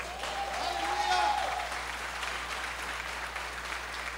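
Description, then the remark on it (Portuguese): An audience applauds Jesus together, a dense wash of clapping that swells early and then holds steady, with a faint sustained tone and voices mixed in. “Se eu fosse você, aplaudia Jesus.”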